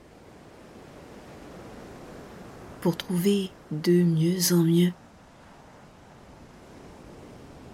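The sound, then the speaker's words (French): A steady, soft wash of ocean waves rolling onto shore fills the background throughout, while a calm voice speaks briefly over it midway. “Hypnose relaxation intense avec le bruit des vagues”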